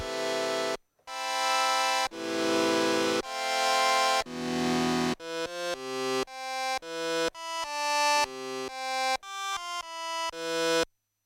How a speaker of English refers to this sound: So let's adjust our attack on a nice level. So now we have this little plop